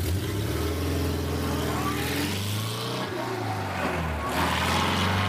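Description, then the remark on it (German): A Porsche 356 Speedster, the first series-production Porsche, revs and drives off, its engine's buzzy, slightly lawnmower-like drone rising and falling in pitch through gear changes, steady and loud for the whole stretch. “Der erste Serienporsche – Porsche 356 Speedster”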